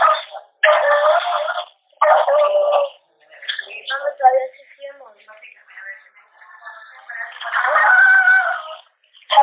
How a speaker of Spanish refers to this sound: ¿quién está haciendo, quién está haciendo ladrar los perros de las 11 y medio, Observa, ¿quién está haciendo ladrar, ladrar a los perros? Ay, hay muchos.